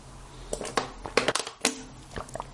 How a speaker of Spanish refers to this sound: El ruidito de la botella que se aplasta.